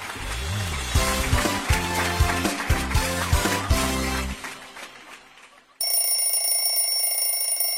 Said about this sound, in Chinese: 贪睡闹钟会在相隔九分钟第二次呼唤着你。